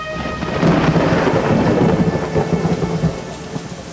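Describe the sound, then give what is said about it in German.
Heavy rain pours down steadily in a dense, hissing wash, with low rumbling thunder swelling underneath; no voices, just the continuous downpour. “die im strömenden Regen ihren Transporter entlädt und eilt ihr umgehend zu Hilfe.”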